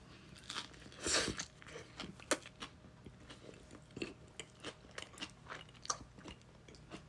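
Crisp crunching of someone biting and chewing a tightly packed vegetable sandwich with ham and Caesar mayonnaise, with a loud bite near the start followed by steady, rhythmic chewing crunches and no talking.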